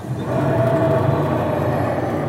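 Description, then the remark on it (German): A steady mechanical whir and rumble from an older-model hand-placement book scanner scanning a page in a darkened room, with a faint tonal whine riding on the drone, continuous with no voices. “Wenn es sich um ein älteres Scannermodell handelt.”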